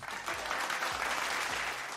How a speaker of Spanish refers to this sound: ¡Aplausos!